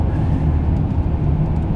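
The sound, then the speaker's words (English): Steady low engine rumble and road noise from riding in a car on a long, four-hour drive, constant and fairly loud with no voices or distinct events over it. “Figured that I'd do it since uh, I got this long drive, four hour drive.”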